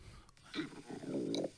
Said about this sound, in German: Und jetzt möchte ich dir was zeigen. Hör, ich will mal gucken, ob man meinen Magen knurren hören kann.